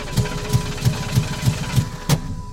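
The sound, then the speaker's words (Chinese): A car engine cranks over without catching as the key is turned repeatedly, the car stopped at the side of a road: a steady run of about eight low, rhythmic chugging pulses from the starter, with no speech. “啊，要扭动这个车钥匙啊，去发动这个车，但是这个引擎啊，就是发不动，”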